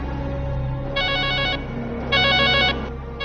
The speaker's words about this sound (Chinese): 报警的电话铃声接连响起，打来电话的人语气分外急切。